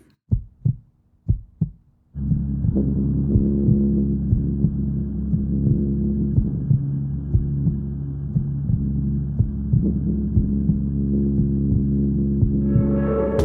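A song intro opens with four heavy, isolated bass thumps like a heartbeat, then a dense, deep throbbing bass drone swells in and pulses steadily and loudly, with no voices.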